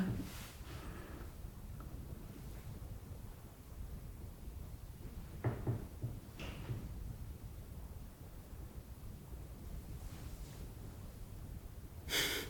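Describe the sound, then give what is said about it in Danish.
A chair creaks a few times as someone shifts their weight: short, rustling bursts scattered across a quiet, hissy room, with the last one near the end a little louder. “Altså, jeg fik stolen til at lave en lyd.”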